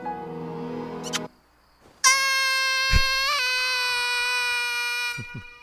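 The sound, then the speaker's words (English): A loud, sustained high-pitched cartoon scream wails for about three seconds after a short burst of strained, squealing vocal noise and a brief pause, with a slight wobble mid-scream before it cuts off. “Great scream. Great scream.”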